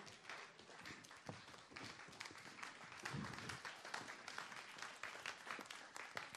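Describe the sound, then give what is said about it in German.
An audience applauds steadily as an interview guest comes onto the stage, a dense wash of many hands clapping at once that holds at an even level for several seconds without any talking. “Und Geben wir ihr einen, einen fetten Applaus.”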